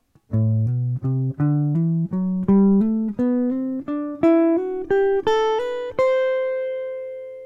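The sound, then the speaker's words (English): A jazz guitar, played fingerstyle, plays a steady ascending slurred scale warmup exercise, roughly seventeen evenly spaced, softly connected notes climbing in pitch and ending on a ringing held tone, played alone with no talking. “Jazz Guitar Warmup: (Almost) Slurred Scale Exercise”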